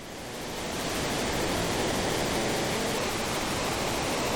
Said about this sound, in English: All right, we ride off a waterfall.